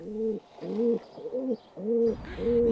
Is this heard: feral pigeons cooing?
yes